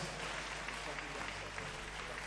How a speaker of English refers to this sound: Anybody clapping, receive a double portion of that.